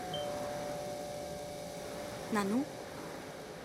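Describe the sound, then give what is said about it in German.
A doorbell rings as a steady, unbroken electric buzz for about two seconds, then cuts off and a voice briefly speaks. “wer klingelt denn da?”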